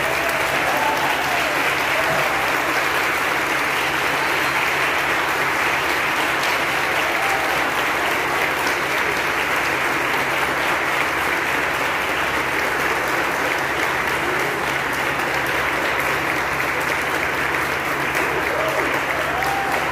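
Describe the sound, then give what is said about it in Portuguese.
A church audience stands and applauds steadily for about twenty seconds in honor of a decision made by fellow church members, a loud, dense wash of clapping with no breaks, and faint voices mixed in beneath it. “Eu vou pedir para a igreja ficar de pé, porque é para aplaudir de pé a decisão desses irmãos.”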